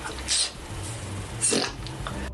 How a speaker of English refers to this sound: it was about time I did some more queefing. Yes. Or pussy farts.